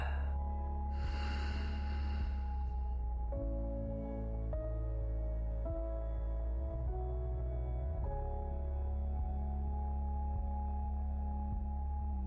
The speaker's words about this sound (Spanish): Notas cómo, entre más calma estás, más expande tu pecho y más fácil fluye el aire. Inhala. Y exhala.